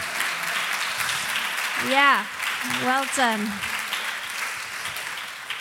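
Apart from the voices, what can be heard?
audience cheering and applause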